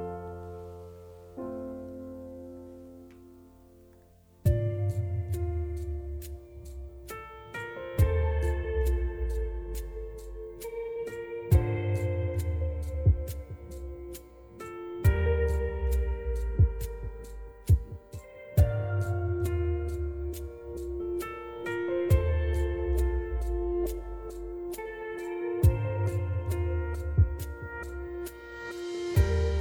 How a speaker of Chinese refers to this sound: 最后一首好听的歌曲声中，跟你说晚安。